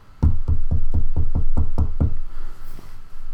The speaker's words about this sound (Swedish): Det började knacka på min dörr. Och det var inga aggressiva knackningar eller plingningar. Utan det var liksom fina knackningar.